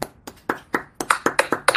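A brief round of hand clapping: about ten sharp, crisp claps, spaced unevenly at first and then coming quicker and louder, with no talking over them, applauding the winner of a musical tournament on a show.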